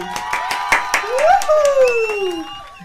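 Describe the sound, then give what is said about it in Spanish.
Steady, rhythmic applause from a small group welcoming a guest artist onto a live radio show, with sharp claps repeating throughout, while a loud voice cheers over it with a long sliding whoop that rises and then falls in pitch. “Y en esta oportunidad le damos un fuerte aplauso”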